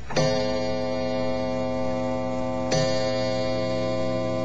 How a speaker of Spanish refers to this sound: También relatan que trabajar de noche en el impresionante edificio municipal llena de miedo, porque el bullicio diurno da paso a un tremendo silencio, solo interrumpido bruscamente por los relojes de pared.